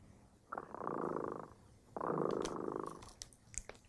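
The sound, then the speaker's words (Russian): The cat Dremota purrs in two long, rumbling bursts, each swelling and fading with its breath, followed by a few soft clicks and shuffles. “Кот Дремота запел свою песенку.”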